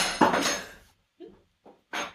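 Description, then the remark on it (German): A spoon hits a hard floor with a loud metallic clatter, then bounces a few more times with smaller, fading clinks before a final rattle, with no talking. “Mir ist der Löffel runtergefallen.”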